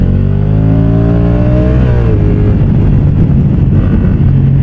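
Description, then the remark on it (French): A motorcycle with the same engine as the Africa Twin, 75 kW and 102 horsepower, revs up loudly while riding, its pitch climbing for a couple of seconds before settling into a steady, rough roar mixed with rushing wind noise. “Alors le moteur c'est exactement le même que l'Africa Twin, 75 kW, 102 chevaux, le même couple, au même euh, régime moteur,”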